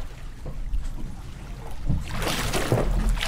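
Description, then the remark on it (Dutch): Water sloshes and laps against a small boat as it rocks while people board it, the splashing swelling louder in the second half with low thuds of movement. “dat schommelt helemaal. Je bent er niet bang voor een beetje water zeker, hè?”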